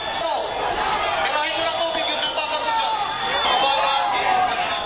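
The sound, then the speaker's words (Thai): A dense, chaotic crowd of anti-Trump protesters roars continuously, with many overlapping voices shouting and yelling at once, loud, filling the whole stretch without pause, as they try to push through an officials' barrier to get near a conference venue. “เสียงตะโกนกึกก้องและความชุลมุนปะทุขึ้นขณะที่ผู้ประท้วงขับไล่ทรัมป์พยายามฝ่าแนวกั้นของเจ้าหน้าที่ เพื่อเข้าไปใกล้กับสถานที่จัดการประชุมให้ได้มากที่สุด”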